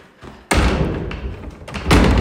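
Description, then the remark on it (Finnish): A door of a historic home museum in Kotkaniemi, Luumäki, Finland, is pushed shut against the freezing cold with a sudden thud, followed by a steady rustle of movement and a second bump near the end. No one speaks. “Noi, ovi kiinni pakkasta ja Mennään tänne sisälle lämpöseen.”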